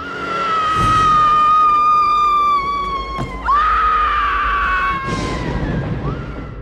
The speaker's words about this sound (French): pour arriver à avoir un bon cri de peur de femme, c'est quelque chose qui est très dur parce qu'il faut pouvoir l'exprimer à ce moment-là.